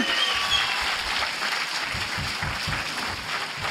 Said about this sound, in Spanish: Un aplauso a Mario Capistrán, por favor.